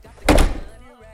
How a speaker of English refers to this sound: You won't believe I just closed the door. You freaked me out.